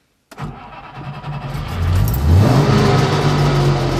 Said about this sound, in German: Motor läuft. Also er klingt ein bisschen blechern, aber das ist ja so, weil er hat ja einen ganz anderen Motor. Ein Zweitakter, Dreizylinder, der fährt ja auch mit einem Mobit gemischt.